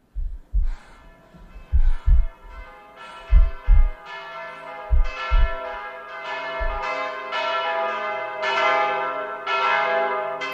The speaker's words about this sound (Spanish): esas campanas, desde luego, no suenan a una iglesia